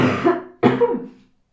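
Two loud coughs in quick succession, each a sharp burst that trails off into a rough, throaty rasp, followed by a brief silence.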